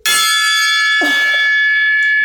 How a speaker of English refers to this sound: time to start the episode with the Parks and Recreation Gong